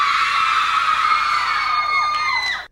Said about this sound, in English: Let's give a shout out to the screaming people in the audience.